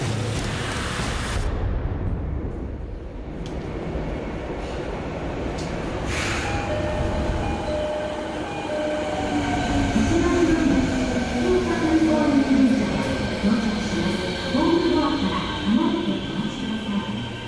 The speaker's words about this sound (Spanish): Con el Sarin ya probado y la inminencia del final, un mes y medio más tarde, cinco hombres con bolsitas de papel de diario y paraguas afilados se subían al subte de Tokio en hora pico en distintos puntos de la ciudad.